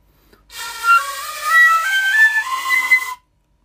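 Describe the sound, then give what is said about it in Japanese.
A shinobue, a bamboo transverse flute held sideways and blown into, plays a short, breathy phrase of about three seconds, its bright tone stepping through a few different pitches with a strong airy hiss, then stopping abruptly into silence. “忍笛っていうのはですねえー、ま竹でできてる楽器で横笛横にして吹く笛で、えー、こう息を吹き込むことで音が鳴ってあとは”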